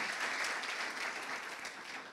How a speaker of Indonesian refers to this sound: Mari tepuk tangan dulu untuk kasih karunia Tuhan yang luar biasa.